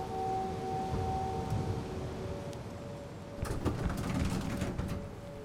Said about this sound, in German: Es ist höchste Zeit, sagt er, steigt in den Lift. Die Tür schließt sich hinter ihm.